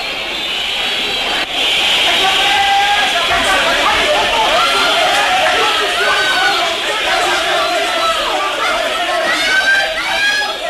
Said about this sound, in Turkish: Bağıranları duyuyorsun